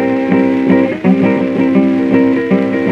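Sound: guitar playing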